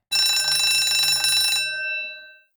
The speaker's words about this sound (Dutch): Oh, dat was de bel. Dat betekent dat we de netten gaan ophalen.